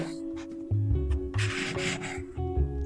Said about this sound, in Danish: kan du ikke lige prøve at tage den blyant, der ligger foran dig, og tegne en streg på det der stykke papir?